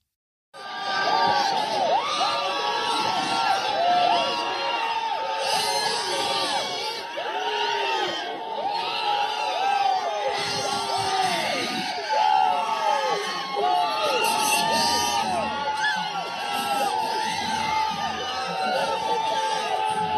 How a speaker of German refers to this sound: Und das ist eben auch Teil der USA, dass es sehr, sehr viele Menschen gibt, die dieses Urteil feiern. Und sie haben vor dem Supreme Court in Washington, D.C. gejubelt. Auch das hören wir einmal.